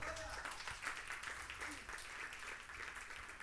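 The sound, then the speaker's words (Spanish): An audience breaks into applause, a dense, steady wash of many hands clapping that holds at an even, moderate level for a few seconds without letting up. “un fuerte aplauso, Señor.”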